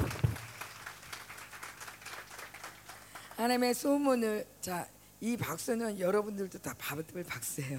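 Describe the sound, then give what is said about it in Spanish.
Applause from an audience fills the opening seconds as a steady patter of many hands clapping, then someone starts speaking while the clapping thins out underneath. “Bueno, eh, vamos a darle el aplauso a la Sunamita también, ¿no?”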